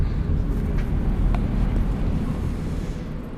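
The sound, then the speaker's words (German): Steady, heavy low rumble of a tram interior in motion, with continuous droning vehicle noise and faint higher rattles, fairly loud, with no voices. “Okay, also hier in der Straßenbahn gerade waren jetzt gar nicht so viel direkt Infizierte.”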